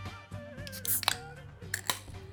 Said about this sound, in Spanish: ¡Ah! ¡Qué lindo ese sonido! Que trae una lata de cerveza y cuánta felicidad te puede dar.